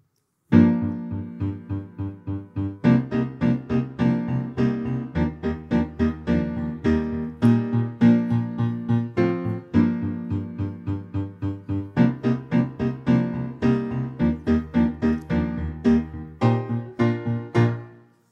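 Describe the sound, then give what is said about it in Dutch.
A pop tune, the second of two versions of the same song, plays fairly loud, driven by steady, bouncy repeated chords with a clear bass line. There is no singing or talking. “Hans die heeft voor ons twee versies van een nummer van de … voorbereid”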